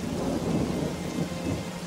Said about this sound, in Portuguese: Ele foi na chuva mesmo. Estava acostumado com a chuva.